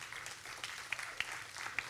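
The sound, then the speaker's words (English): An audience applauds steadily, a dense wash of many hands clapping with a few sharper individual claps standing out, at a moderate, even level throughout. “yeah, you can applaud. That's pretty incredible.”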